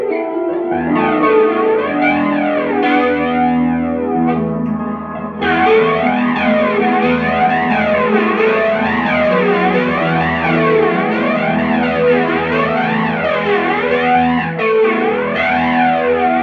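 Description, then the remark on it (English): An electric guitar plays through a flanger pedal, its tone sweeping up and down in steady, rhythmic waves with a gritty, distorted edge, loud and continuous with no talking. “Slow that rate down a little bit.”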